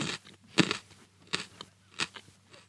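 Someone bites and chews a raw carrot, with three or four sharp, crisp crunches at irregular intervals and softer chewing noises between them. No one speaks.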